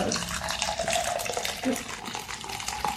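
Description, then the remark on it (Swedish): Coffee being poured into a cup: a steady splashing and gurgling stream of liquid that runs continuously for a few seconds, with no talking. “Man blir kissnödig, av att dricka kaffe, man blir kissnödig av porlandet också.”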